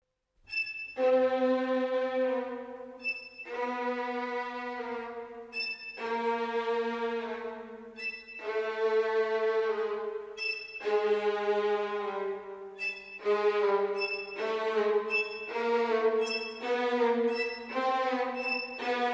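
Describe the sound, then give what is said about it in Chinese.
In a Saint-Saëns movement, orchestral instruments mimic a donkey's bray: brief shrill high notes alternate with long, rough, buzzing low tones in a repeating hee-haw pattern. The pattern quickens toward the end, with no talking. “圣桑非常巧妙地运用了器乐来表现这种动物的叫声，它就是驴子。”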